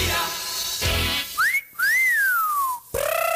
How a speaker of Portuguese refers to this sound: Apito árbitro!